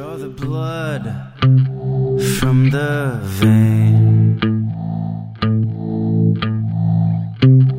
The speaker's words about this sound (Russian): Песня под названием «…» откроет сегодняшний выпуск программы